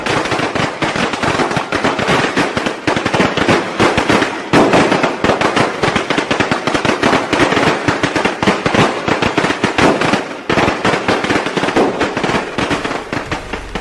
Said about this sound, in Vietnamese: Trong cái tĩnh lặng của đêm giao thừa nơi cuối hẻm vắng, người dân nghe thấy tiếng pháo hoa vang lên từ trung tâm thành phố báo hiệu một năm mới đã về.